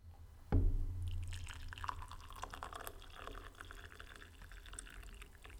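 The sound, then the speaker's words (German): A short bump is followed by a steady stream of tea pouring into a cup, a soft continuous trickle with a rising, filling tone, fairly quiet. “Der Maestro gießt jetzt ein.”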